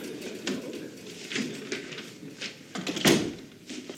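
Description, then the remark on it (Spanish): A door is pushed shut with a firm thud near the end, preceded by a few softer knocks and shuffling movement. “Cierra la puerta.”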